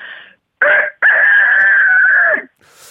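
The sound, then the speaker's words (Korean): A person's voice imitates a rooster crowing as a morning wake-up call: a short opening note, then a long, sustained, wavering cry that bends downward at the end, loud, with no other talk. “아침에 모닝콜 해주는 닭소리 들어보겠습니다.”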